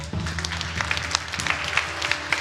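An audience applauding steadily, a dense patter of many hands clapping at once, with a low steady hum underneath, and no one speaking.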